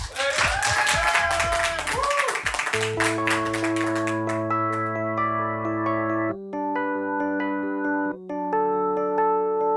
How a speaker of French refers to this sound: Applaudissements.